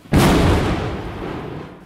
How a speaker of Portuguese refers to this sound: Ainda na pré-história, os seres humanos começaram a desenvolver ações baseadas nos sons da natureza. Os trovões,